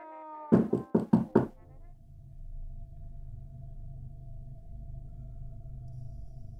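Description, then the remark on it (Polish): Four quick, loud knocks on a door in a tight cluster, a second round of knocking after a short wait, followed by quiet with a low steady hum and faint rustling in the background. “Ja sobie czekam jeszcze chwilę i drugi raz pukam.”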